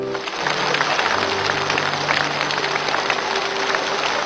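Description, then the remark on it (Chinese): A steady wash of clapping from a large studio audience applauding a young man, dense and sustained at an even loudness throughout, with no voices rising above it. “为我们的小伙子鼓掌。”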